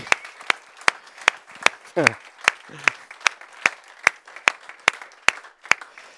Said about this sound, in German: ich möchte, dass wir uns selbst Jesus und auch unseren Zuschauern heute Morgen oder wann immer die das sehen, einen kraftvollen Jesus-Applaus geben und Oase Church-Applaus. Alles zusammen in einer, das ist gewaltig.